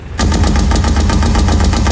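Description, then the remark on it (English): A tank's .30 caliber machine gun fires a sustained burst at German soldiers by haystacks, rapid evenly spaced shots hammering loud for nearly two seconds after a brief quiet start. “shouted War Daddy, and the 30 cal chattered away.”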